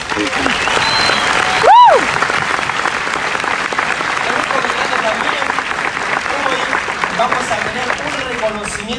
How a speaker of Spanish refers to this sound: Este, un aplauso para ellos.